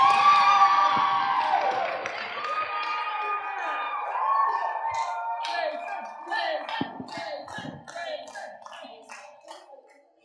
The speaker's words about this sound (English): But as he comes, can you stand up to your feet and give him a round of applause? This is his first time preaching here.